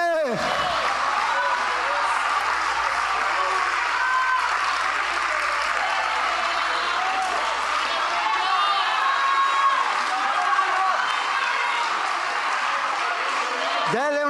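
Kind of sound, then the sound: crowd, audience applauding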